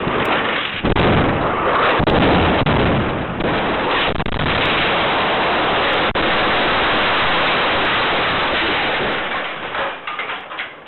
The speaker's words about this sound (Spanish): Oirán una detonación muy cerca de donde él estaba grabando. Escuchen.